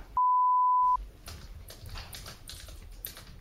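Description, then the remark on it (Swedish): A push-button phone is being dialed to place a call: a steady electronic beep lasting under a second, then a quick run of soft button clicks at an uneven pace. No one speaks. “Och eh, med den här telefonen så vill eh, jag ska ringa ett samtal till eh,”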